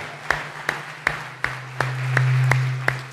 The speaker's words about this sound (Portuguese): Dê um forte aplauso para Jesus. Aleluia.